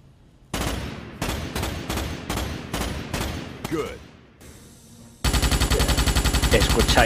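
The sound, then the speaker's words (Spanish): Machine gun fire in a video game while testing the Federation army's weapons aboard a ship to learn the controls: first a string of short, punchy bursts, then a louder, sustained stream of rapid shots, with no voices. “Como es natural en estos juegos, pues empezamos dando paseo por la nave para familiarizarnos con los controles y probar las armas del ejército de la Federación.”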